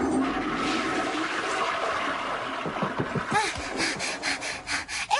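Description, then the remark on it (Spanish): A toilet flushes, a steady rushing whoosh of water that breaks into gurgling, swirling drainage sounds toward the end, the water running to the right. “Necesitamos que revise su retrete y nos diga hacia qué lado corre el agua, pero tenga cuidado.”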